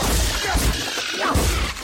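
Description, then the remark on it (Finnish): Two sharp whip-crack sound effects snap out about a second apart, played as a punishment on a morning radio show, each a bright, sudden lash set against a dense, continuous noisy background with no talking. “Ja tota, Ruoska heilahka.”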